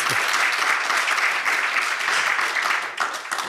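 A live audience at the Münchner Medientage in Munich applauds with dense, steady clapping that stays loud and even for a few seconds, tapering slightly at the end, with no one speaking over it.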